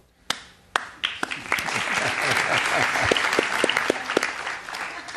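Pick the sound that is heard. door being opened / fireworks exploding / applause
applause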